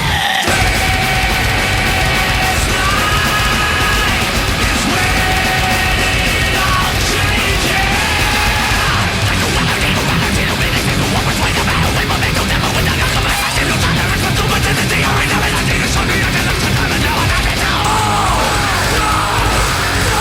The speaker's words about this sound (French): Le son est massif, tranchant, les guitares assomment à coups de riffs répétitifs et aliénants, la voix croule sous la réverbe et le délai, et le clavier vomit des bruits d'apocalypse.